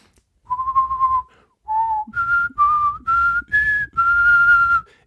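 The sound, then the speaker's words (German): A person whistles a short jingle-like tune, six clear notes of varying pitch with brief pauses between them, the last note held longest, with faint breathy noise underneath. “Und da muss ich mal kurz meine, meine Lippen ölen, weil ich da was pfeifen muss.”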